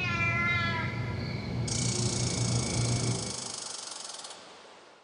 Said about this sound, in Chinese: 就他们用那个猫和蛇的声音回答我，然后我说你们谁？你们谁家小孩啊？然后他们还是用那个声音回答我。